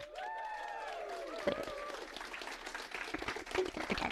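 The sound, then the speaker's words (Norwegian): A live audience in a hall at a live recording bursts into applause, opening with whoops and cheering voices over steady clapping, then settling into a dense, crackling patter of many hands that continues to the end. “La oss få høre publikum.”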